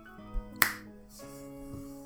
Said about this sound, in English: Oh, was that a finger snap?